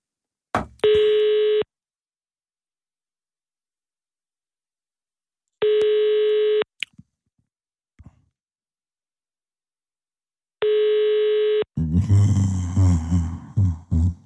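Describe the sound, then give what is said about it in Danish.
A telephone ringback tone sounds three times as a call is placed to the SF party's phone, each steady buzzing ring lasting about a second with long silent gaps between, a few faint clicks in between, then a voice begins talking. “vil du ikke lige på at ringe til SF's telefon, så kan vi lige tage det hele her.”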